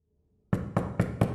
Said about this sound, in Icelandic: Nokkrum dögum eftir þetta atvik þá bankar upp á hjá þeim tvær sýstur